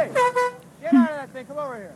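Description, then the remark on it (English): A voice mimics air horn blasts blown in different directions at a close cluster of construction workers: a few loud, blaring honks in quick succession, each with a wavering, sliding pitch, with no other sounds around them. “he's just blowing this air horn in different directions at them.”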